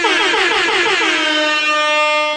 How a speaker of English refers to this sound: no matter how many times I do that, it doesn't sound any better, but I do love the DJ air horn. It's one of my favourite things.